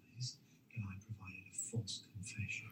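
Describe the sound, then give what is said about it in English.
A female dog scratches herself, with a quick run of soft rhythmic thumps and brief scratchy, jingly bursts, faint voices murmuring in the background. “My, my dog is actually scratching herself while I'm watching.”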